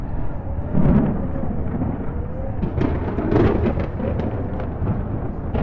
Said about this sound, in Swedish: Jag ser tornadon komma emot mig i en rasande fart.